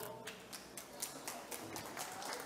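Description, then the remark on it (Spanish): A small group applauding, with individual claps landing in a quick, uneven patter throughout. The clapping is fairly soft and steady, and no one speaks over it. “Otro aplauso, por favor.”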